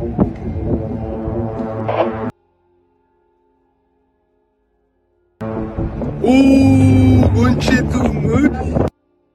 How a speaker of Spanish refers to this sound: Oye, justo hay una micro ahí, weón.